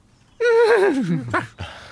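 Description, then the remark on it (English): A horse neighs once, loud, played from a record: a high whinny that quavers and slides downward, ending in a couple of short snorting breaths. “I've got a horse record.”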